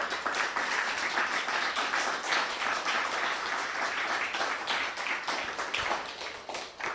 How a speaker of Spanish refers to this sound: Así que aplausos al santo bendito sea por este tiempo.